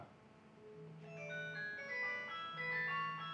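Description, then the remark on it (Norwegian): A mobile phone, called by someone looking for it, rings with a bright electronic ringtone melody of stepping tones, steady and fairly quiet, heard alone without talking. “Hvor er mobilen? Da skal jeg ringe.”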